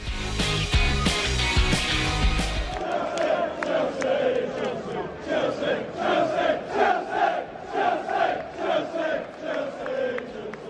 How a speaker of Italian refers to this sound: Abbiamo sentito i cori dei tifosi del Chelsea